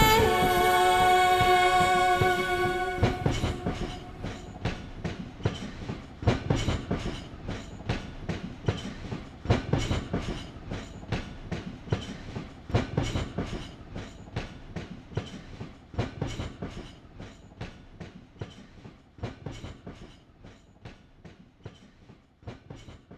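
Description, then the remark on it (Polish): A locomotive sounds a sustained, chord-like horn, then speeding train wagons take over with a loud, steady clickety-clack of wheels rattling over rail joints in a fast repeating rhythm. “Pociąg, pociąg w ogóle, dźwięki y, lokomotywy, rozpędzonych wagonów zawsze będą, będą mi się kojarzyły z początkiem muzyki konkretnej”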